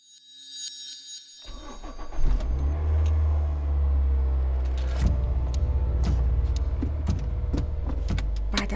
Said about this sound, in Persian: از چند ثانیه دنده عقب میگیره و شروع میکنه به رانندگی چون نمیدونه دیگه باید چی کار کنه